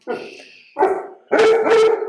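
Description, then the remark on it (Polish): A dog, Kwietna, barks at something heard behind a door in three harsh bursts, starting moderately and growing louder, the last a long, loud, rough volley with a double push near the end. No one speaks. “To, to jest y, kwietna, która usłyszała coś y, za drzwiami.”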